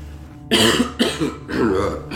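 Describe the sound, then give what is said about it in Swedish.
Three harsh, wet coughs in quick succession, each with a rattling, phlegmy texture, loud with no talking, coming from the other side at a doctor's office. “Rosslande hostningar på andra sidan.”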